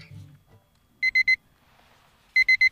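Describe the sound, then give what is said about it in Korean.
Two quick bursts of electronic beeping from a pager receiving an incoming page, each three sharp, bright tones in fast succession, separated by a pause with faint background murmur. “응? 삐삐 왔네.”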